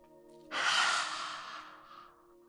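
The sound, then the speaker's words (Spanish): A forceful, breathy exhale with the mouth wide open, tongue out and eyes wide during a lion-face exercise: a hoarse rushing breath that swells suddenly, then fades over about two seconds. A person imitating a lion's roar, heard alone against a soft background hum. “Podemos emitir el rugido.”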